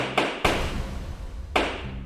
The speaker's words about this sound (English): Do you like the sound of gavels? How about phone books flipped over tabletops? What, what other sounds do you like? Want to hear both gavels and phone books at the same time?